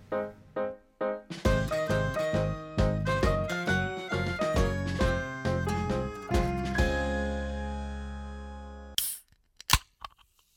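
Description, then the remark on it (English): A bright musical jingle plays for several seconds, then stops, followed by two sharp cracking hisses as beer cans are popped open one after another. “Well, let's all crack our beers.”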